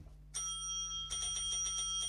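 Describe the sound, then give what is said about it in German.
A bright game bell, pressed by players in a guessing game, rings once with a lingering metallic tone, then is pressed rapidly again and again in quick succession, loud and insistent, with no voices. “wenn ihr glaubt, dass ihr die berühmte Person erkannt habt, ja. dann dürft ihr einmal auf die Klingel drücken.”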